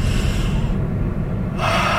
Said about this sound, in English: Even right there, just breathing throughout the day, taking time to breathe, realizing when I've been talking too long and my breath is short and I can feel my blood in my head starting to it's too much, right?